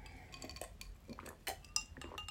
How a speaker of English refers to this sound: I'm drinking Pepsi Max with a hint of lime out of a regular pint glass with some ice. Bit of ASMR for you there.